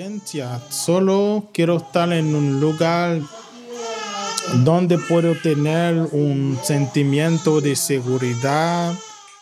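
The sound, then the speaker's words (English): An infant daughter, born soon after her family arrived in the U.S., cries loudly while held by her mother in a living room in Houston, with a steady run of high, strained wails that rise and break off in short bursts, barely pausing for breath across the whole stretch. “held their crying infant daughter, who was born soon after they arrived in the U.S.”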